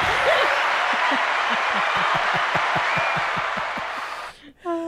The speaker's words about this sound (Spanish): Literalmente ayer, no, no ayer, el día antes de ayer, vi un video donde tenían el director, los maestros, eh, tenían como varios oficiales eh, de la policía aplaudiendo, mientras aplaudiendo, mira, así, aplaudiendo así.